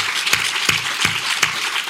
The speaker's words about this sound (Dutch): Mag ik een applaus